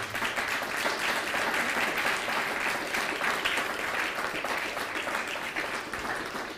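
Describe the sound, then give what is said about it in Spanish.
An audience claps steadily, a dense, sustained wash of many hands that stays fairly loud throughout and begins to taper off slightly at the very end. “Denle un fuerte aplauso al bendito sea.”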